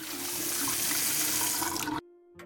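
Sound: water running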